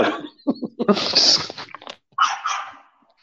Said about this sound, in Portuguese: Muta né? é a porra desse cachorro chato que tá latindo aí